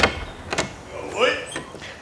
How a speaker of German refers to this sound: Wir pömpeln an die Tür. Hier. Ihr klopft mal gegen die Tür.